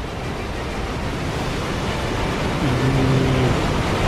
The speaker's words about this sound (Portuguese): vocês começam a escutar a queda da cachoeira. É uma queda impressionante em termos de volume d'água.